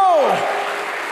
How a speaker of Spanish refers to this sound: ¿Cuántos dicen amén? ¿Cuántos dicen amén? Fuerte ese aplauso al Señor. Fuerte ese aplauso.